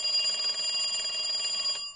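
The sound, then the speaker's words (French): A steady electronic telephone ring tone sounds continuously for nearly two seconds, bright and high-pitched with a buzzing pulse, then cuts off abruptly, on a call to the car rental company to have the car opened; no voices are heard. “Et rebelote, je rappelle pour qu'on m'ouvre.”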